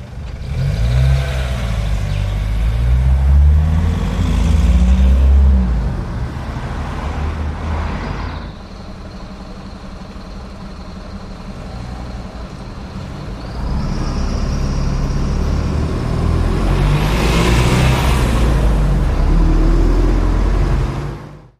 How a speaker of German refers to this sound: Ja, das waren ein paar Sekunden Straßenverkehr. Mehr möchte ich Ihnen auch gar nicht zumuten.